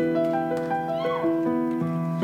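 A cat meows in a few drawn-out, wavering cries, fairly loud, over a steady sustained tonal hum, with no talking.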